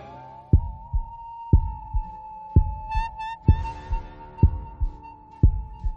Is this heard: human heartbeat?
yes